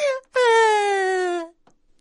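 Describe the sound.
A loud, drawn-out wailing cry voiced by a person imitating a crying little sparrow: a short sob, then one long wail that slides steadily downward in pitch before breaking off.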